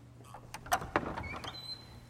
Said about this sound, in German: Der 63-jährige Geschäftsführer Kimsey Mann schließt die Tür. Der Saal ist voll mit Aktionären.